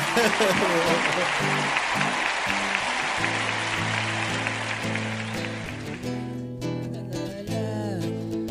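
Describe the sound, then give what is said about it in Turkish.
Loud, dense audience applause fills the first six seconds while music rises beneath it, then the clapping fades and the music, with a singing voice, carries on alone. “Alkışlar sana.”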